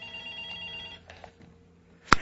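A telephone rings with a steady electronic trill for about a second, followed by a brief pause and then a sharp, loud tone burst at the end, clear with no talking, for an incoming call.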